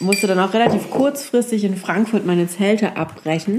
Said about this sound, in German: Ihr hört hier die Bar im Hintergrund.